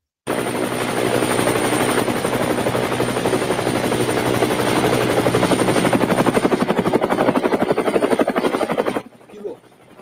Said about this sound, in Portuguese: Vamos agora diretamente ao nosso helicóptero que está sobrevoando o evento.